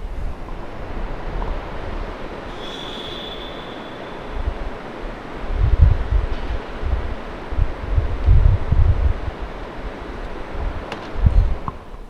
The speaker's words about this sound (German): Ich weiß nicht, was man hören wird, aber in diesem Moment geht das Mikro raus aus dem Fenster und ihr werdet ein bisschen was von New York hören.